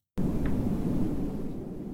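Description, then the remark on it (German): A steady, low rumbling wind effect starts abruptly and holds a dense, roaring wash with a faint rattle on top, gradually easing slightly toward the end. No voices are present. “Oh, so Wind ist auch nicht schlecht.”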